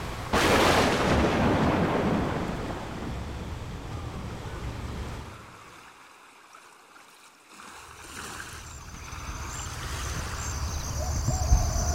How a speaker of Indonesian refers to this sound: Badai besar itu pun mengombang-ambingkan kapal yang dinaiki Malin.